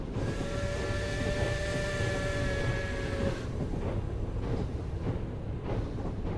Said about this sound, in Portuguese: segue pela velha estrada de ferro, soltando vapor e nos embalando com um som contínuo de suas engrenagens.